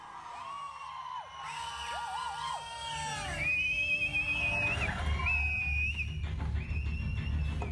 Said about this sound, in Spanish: Cuando la película comenzó, todo el cine aplaudió y gritó de emoción.